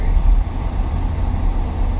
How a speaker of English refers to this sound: Um, anyway, the traffic mess out here is as crazy as it's ever been out here